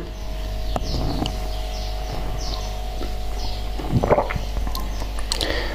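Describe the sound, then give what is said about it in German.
A male cat chewing its food, with irregular wet crunching and smacking bites repeating over several seconds, while faint bird chirps come from the background. “Mein Kater ist am Fressen.”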